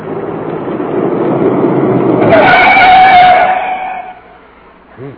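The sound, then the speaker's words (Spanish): An engine rumble grows louder as a private car with Coahuila license plates, coming from Saltillo, draws near, then a sharp, sustained brake squeal rings out for about two seconds as it is flagged down and stops, and the sound settles. “Allá viene un auto particular. Tenemos que detenerlo para preguntarle.”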